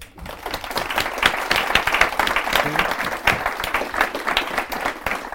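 A crowd applauds steadily for several seconds at the close of a talk event, a dense, even patter of many hands clapping at once with no voices standing out.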